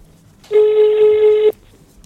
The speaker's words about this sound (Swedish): Vi, vi ringer, ringer nu. Vi ringer nu.